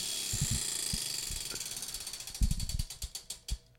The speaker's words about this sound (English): Spin the wheel one more time.